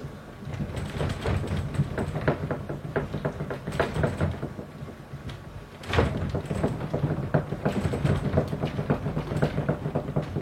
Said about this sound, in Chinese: 乖乖，现在先给你听到的是地震五级时候的声音。五级其实已经蛮大的哦。